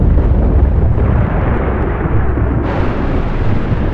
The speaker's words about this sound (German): Brodelnde Gewitterwolken verdunkelten den Himmel.